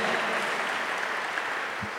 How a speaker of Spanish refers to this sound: Dale un fuerte aplauso a la bendita palabra de Dios.